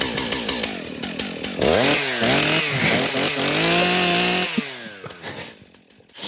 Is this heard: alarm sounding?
no